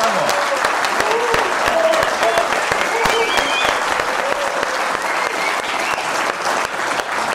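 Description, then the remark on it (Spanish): Sustained applause from a live audience at Teatro Soco at the start of a live edition of Política para Adultos, a dense steady wash of clapping hands lasting several seconds, with a few faint cheers or whistles rising briefly over the noise. “Un aplauso, escuchemos el vivo, a ver cómo”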